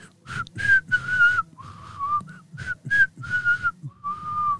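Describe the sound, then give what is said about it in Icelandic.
A person whistles a melody, a series of clear sustained and sliding notes with short breaths between phrases, fairly loud, with no talking. “ef að ég byrjið að blístra eitthvað lag sem að hún var að æfa Já.”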